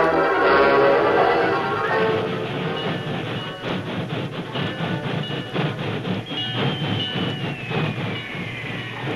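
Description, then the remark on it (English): A railroad train rumbles steadily along the tracks, with a dense, continuous roar and rhythmic clattering of wheels, a thin high metallic squeal rising briefly near the end. “And I'm sure he got out of town on one of the railroad work trains.”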